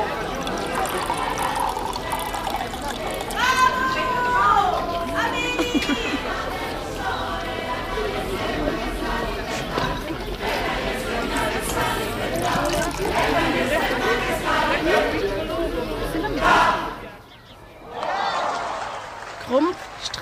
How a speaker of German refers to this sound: Ein großes Fest war im Gange.